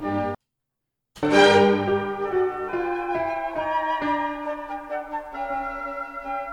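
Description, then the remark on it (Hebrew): After a brief pause, a solo instrument plays a short chromatic passage, the only chromatic part of a Mozart symphonic movement, near the movement's end, the part Bernstein refers to: sustained, ringing notes shifting step by step in a steady line, fairly loud, with no talking. “אולי קשה קצת לשמוע את הכרומטיקה, זה מאחורה, אני אנגן את זה רגע.”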